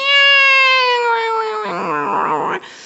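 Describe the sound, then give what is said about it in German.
A person imitates a cat with one long, drawn-out meow: a high, steady wail that slides lower and turns rough and wavering before stopping abruptly. The voice is loud. “benutzt diese Angst als Riesenkraft ja. zum Bellen, zum Miauen, zum ein Zwerg imitieren.”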